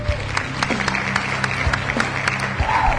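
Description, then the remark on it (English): Steady applause from a crowd, a dense patter of many hands clapping at fairly even loudness throughout, with some faint voices mixed in underneath. “You know, it's a good show if I'm already applauding.”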